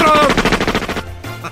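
A rapid burst of machine gun fire, about ten sharp shots in quick steady succession, loud and rattling, cutting off abruptly and followed by a brief low rumble.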